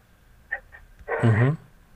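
A tracking dog, Yatel, leading a search operation toward España and Alberdi streets, gives two quick, faint yips, then a louder drawn-out whining bark that rises and falls in pitch, with a faint murmur in the background.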